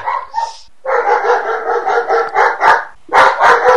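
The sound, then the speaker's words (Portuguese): A dog barks loudly and angrily in a rapid, nearly continuous volley of barks, pausing briefly before another burst begins. “Ó, o cachorro tá puta agora com alguma coisa.”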